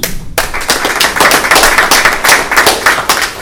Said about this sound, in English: we're going to give you another round of applause.